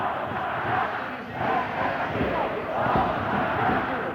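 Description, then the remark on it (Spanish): A large indoor crowd at a basketball game between Vasconia and Pau chants a song together in unison, "Este partido lo vamos a ganar", voices swelling in a steady rhythmic cadence with loud, sustained group singing. “Y en el público ahora hay unanimidad, una canción en eco al de Este partido lo vamos a ganar, lo escuchamos.”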